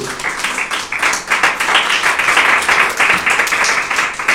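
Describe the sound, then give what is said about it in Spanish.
A church audience claps their hands together as an offering of applause to the Lord, in a dense, sustained burst of applause, many overlapping claps forming a steady crackling wash with no clear individual beats, loud throughout the few seconds. “De la ofrenda de palmas al Señor, pues, porque hoy lo miro un poquito serio.”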